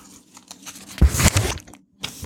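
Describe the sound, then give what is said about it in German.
The corner of a page in a law book is folded into a dog-ear: a sharp, crinkly crackle of creasing paper lasting about half a second, surrounded by softer rustles and a brief final swish. “Eselsohr reinmachen.”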